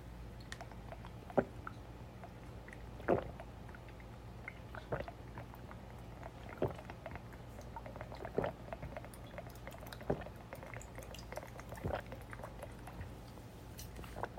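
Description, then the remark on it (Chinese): Someone drinking water from a water bottle in big gulps, a series of about eight wet swallowing sounds in a steady rhythm, roughly every second and a half, over a low steady hum with no talking. “好，那我现在来喝一口，大家听听看这个喝水的声音。”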